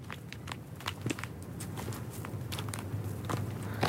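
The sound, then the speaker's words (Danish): Footsteps crunch steadily through undergrowth at a walking pace into Dyrehaven, a forest north of Copenhagen, near midnight, each step a dry crackle of leaves and twigs, over a low, steady outdoor hum. “Klokken nærmer sig midnat, og øh, det er nu tredje gang, vi forsøger at gå ind i skoven for at, at fange lyden”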